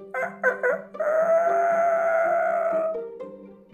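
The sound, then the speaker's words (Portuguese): A rooster gives three short clucks, then one long drawn-out call with a strong harmonic tone that slowly fades, all close and fairly loud with no one talking. “O galo, vendo o fracasso do pato dourado, ficou entristecido e pensou: Pobre pato, não sabe cantar, é mudo. E retirou-se cacarejando tristemente.”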